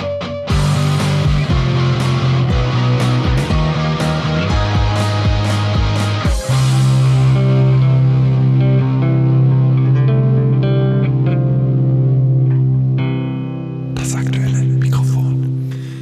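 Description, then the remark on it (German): A loud fanfare jingle: punchy rhythmic hits build for a few seconds, then give way to a long sustained chord that swells and ends in a bright, noisy cymbal-like flourish. “So, das war die Fanfare.”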